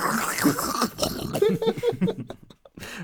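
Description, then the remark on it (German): A voice imitates a video game character on his knees scooping soup off the floor from one hand into the other: a few wet, throaty slurping and burp-like sounds in quick succession, with no words spoken. “schaufelt so die Suppe mit einer Hand in die andere. Dann hat er so ein Glas mit Suppe auf einmal. ja, und das Geräusch dabei so.”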